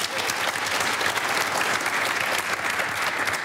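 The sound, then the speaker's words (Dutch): A crowd of people claps steadily for several seconds at a political debate with members of four parties, welcoming Habtamu de Hoop of GroenLinks-PvdA; a dense, even wash of applause with no clear individual claps standing out and no pauses. “Geef hem een hartelijk applaus.”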